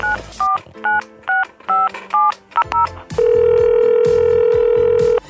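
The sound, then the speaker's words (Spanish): A quick run of about eight crisp telephone keypad dialing beeps, evenly spaced, followed by a long, loud steady line tone held for roughly two seconds, as someone dials to phone a friend. “Voy a llamarla a ver qué me dice.”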